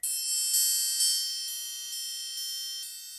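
A bronze triangle is struck repeatedly at a steady pace, about twice per second, its bright, shimmering metallic ring sustaining between hits, clear with no voices.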